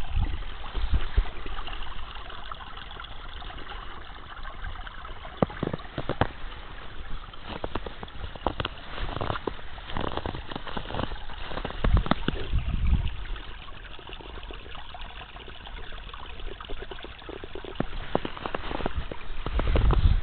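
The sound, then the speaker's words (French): A small stream deep in a snow-covered wood trickles and burbles steadily, with soft irregular splashes and gurgles over a continuous watery hiss, no voices present. “je trouve ça toujours un peu euh, amusant d'entendre, par exemple, un petit but de ruisseau au fond d'un bois, recouvert de neige.”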